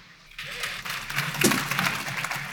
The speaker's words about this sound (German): Nochmal ein Applaus. Das war ein ebenso schönes Schlusswort.